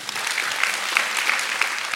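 Steady audience applause for the show's sound engineer near the end of a live event, a dense crackle of many hands clapping at an even, sustained level throughout, with no voices standing out.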